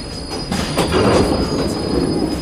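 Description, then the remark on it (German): A subway train rumbles loudly along the rails with a steady high-pitched wheel squeal ringing over it, a continuous roar as it slows toward the next stop. No one speaks. “Äh, heute kommt mir die Fahrt mit der U-Bahn irgendwie länger vor als sonst.”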